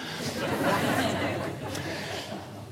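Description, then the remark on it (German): A crowd of children hoots and cheers upstairs, a continuous muffled din of many voices with bursts of laughter mixed in. “Die Kinder johlen schon da oben, oder?”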